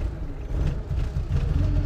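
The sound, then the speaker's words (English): A car engine rumbles low and uneven, dipping briefly twice as if faltering, a sign of engine trouble. No one speaks. “Oh, doggone thing. Looks like a bit of engine trouble.”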